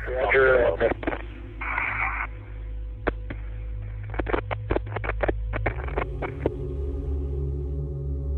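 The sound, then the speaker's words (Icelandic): A garbled, band-limited radio voice, Space Shuttle Columbia commander Rick Husband replying from the cockpit, opens, then dissolves into a burst of hiss and a long run of sharp, irregular crackles and clicks over a steady low electrical hum; the last message received from Columbia. “En orð flugstjórans hurfu í skruðninga og suð.”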